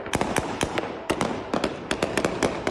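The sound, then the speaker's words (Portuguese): A rapid, irregular volley of sharp gunshots cracks out, more than a dozen loud reports in under three seconds, some overlapping, with no voices between them, as Taliban members fire into the air to disperse a protest crowd in front of the Pakistani embassy in Kabul, Afghanistan. “Integrantes do Talibã efetuaram vários disparos para o alto para dispersar a multidão.”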